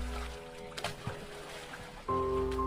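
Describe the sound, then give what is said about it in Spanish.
Hands paddle hard and fast through water along a forest, breaking its surface with a few soft splashes and sloshing bursts, set against a steady low humming drone that swells louder near the end. “Debido a que queríamos ir rápido, remábamos muy fuerte, pero al romper la tensión del agua con nuestras manos, provocábamos mucho ruido.”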